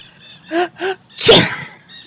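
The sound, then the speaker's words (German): An allergic sneeze set off by birds in a forest full of parrots and other birds: two short rising intakes of breath build up to one loud, explosive sneeze, followed by a brief sniffly exhale. Faint high chirping sounds throughout. “Oh Mann, warum müssen denn hier so viele Vögel sein? Meine Allergie geht schon wieder los.”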